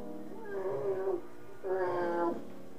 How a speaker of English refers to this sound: No, um, sorry, sorry, sorry, let me pause lang sandali. There's a cat screaming outside my window.